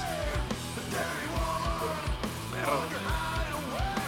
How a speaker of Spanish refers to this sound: Vamos a poner un poquito de lo que hace acá mi compa. Y, efectivamente, Van, a, notar que es música muy gritona, música muy fuerte donde la voz